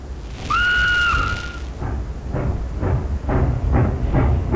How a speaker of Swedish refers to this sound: Följande dag tar de tåget till Helsingfors. På stationen hade samlats flera hundra människor för att visa sitt stöd för presidentparet. De sjunger och överräcker blommor. Under ett trefaldigt hurra startar tåget mot Helsingfors.